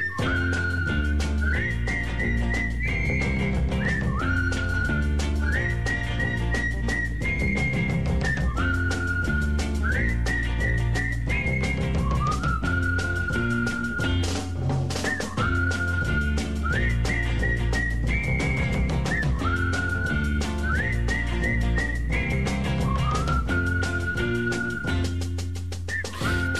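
A rooster-shaped clay whistle blows a bright, repeating melodic phrase, loud and steady over a full instrumental backing with a pulsing bass line, continuing without pause and with no talking.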